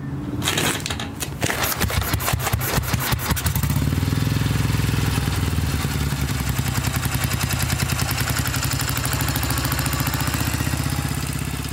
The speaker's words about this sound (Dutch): Dit op een oude vertrouwde Royal Enfield van 350cc met aanhangwagen.